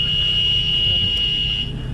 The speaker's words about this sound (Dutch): Is this the corona alarm? Probably.